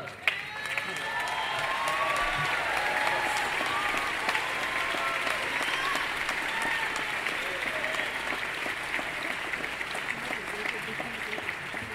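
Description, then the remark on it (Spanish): An audience applauds steadily for several seconds for an American pianist who arranged most of an album of a singer's songs, a dense wash of clapping with a few scattered cheers and voices mixed in, holding an even loudness throughout. “Yo creo que él merece un aplauso porque el trabajo de los arreglos es maravilloso.”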